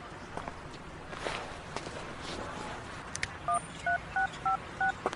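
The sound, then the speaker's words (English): Five or six short, evenly spaced beeps of a phone keypad being dialed to cancel an appointment, each a clear two-tone chirp, following a few seconds of noisy rustling and scattered footsteps. “Are you calling an ambulance? Nope, I'm canceling my appointment so that I can stay here with you.”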